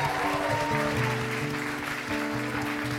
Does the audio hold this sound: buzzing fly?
no